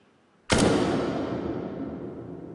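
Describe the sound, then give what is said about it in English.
A single sharp gunshot, originally under half a second long, with added reverb making it sound recorded inside a chapel or church; it cracks out, then rings into a long, washy reverberant tail that lingers for seconds. “By adding reverb, we can make it sound like it was recorded inside a bathroom or like it was recorded inside a chapel or a church,”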